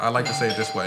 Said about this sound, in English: Okay, that was a doorbell.